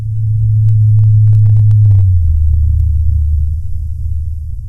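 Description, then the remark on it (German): A blue whale call recorded in the Southern Ocean, its frequency raised four octaves by technical means to make it audible: a loud, deep droning moan that holds steady, then slides lower about halfway through, with a few faint clicks above it. “Der tiefe Bass eines Blauwals wird dabei für Menschen erst hörbar, wenn seine Frequenz mit technischen Mitteln um vier Oktaven angehoben wird”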